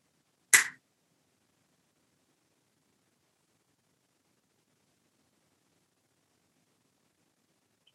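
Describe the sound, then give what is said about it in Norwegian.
A single sharp finger snap cracks out near the start, bright and crisp, then gives way to several seconds of silence with no voices. “Så når jeg knipser i fingrene, så gjør du det.”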